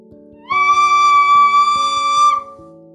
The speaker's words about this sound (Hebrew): מקרב שתי אצבעות אל פיו, מנפח את שפתיו ונושף